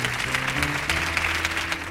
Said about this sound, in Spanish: Ovación del público ante esto que ha ocurrido.